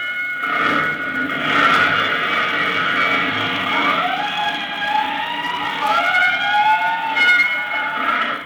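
A fire engine siren wails steadily, its pitch sweeping up and down in long rising and falling tones, loud, with a dense mechanical rumble beneath and no voices.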